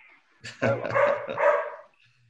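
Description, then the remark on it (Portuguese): A dog named Rodolfo barks and yelps in the background in a short, agitated burst lasting over a second, clear, with no talking over it. “do Rodolfo, que, cujos latidos você pode ouvir ao fundo.”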